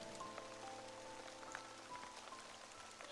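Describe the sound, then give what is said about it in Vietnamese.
Steady rain falls and patters on a surface, a constant dense hiss with scattered drops ticking through it, even throughout, with no voices. “Sau hơn 2 giờ ngồi nhịn mưa mà không bán được gì, ông Tư dọn dẹp nghỉ sớm hơn mọi hôm.”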